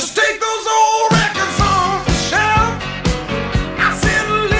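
A loud rock and roll song plays, opening with a sustained chord before a steady, driving drum beat kicks in about a second later and carries on under bright guitar and vocals.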